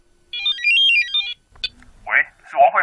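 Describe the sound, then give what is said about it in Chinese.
A telephone ringtone for an incoming scam call showing a Shanghai area code plays a quick electronic melody of high stepped notes that rise and then fall for about a second, followed by a person beginning to speak. “还没等她回过神儿，显示上海区号的第二个电话又打来了。”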